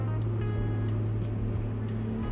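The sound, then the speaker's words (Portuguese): A heavy diesel motor grader rumbles with a loud, steady low engine drone and harmonic hum, punctuated by brief scraping, hissing bursts as it grades the street. “Resolveu patrolar a rua agora.”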